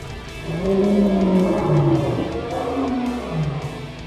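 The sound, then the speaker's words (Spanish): Deep, monstrous growls and roars of the Titans, eternal prisoners in Tartarus, overlap in a loud, continuous stream, with pitch sliding up and down like bellowing giant beasts, and some higher screaming tones mixed in. No one speaks. “Y por último, el Tártaro, donde las almas de los condenados son sometidas al fuego eterno y torturas indecibles, bajo la música de los gritos y gruñidos de los titanes, eternos prisioneros.”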